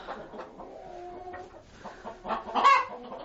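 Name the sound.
rooster and chickens clucking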